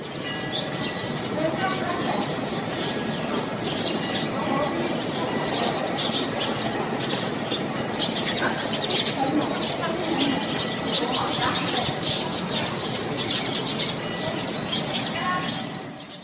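Small birds chirp and twitter continuously by the Beijing-Hangzhou Grand Canal on a breezy morning, their quick high calls scattered over a steady, dense wash of outdoor background noise for the whole stretch.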